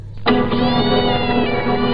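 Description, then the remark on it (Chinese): An old white cat lets out one long, drawn-out meow that begins abruptly and holds a steady, harmonically rich tone, rising slightly in pitch, loud and unaccompanied by any talking. “那只白色的老猫。悠闲的从我身边的钢琴上一跃而过，”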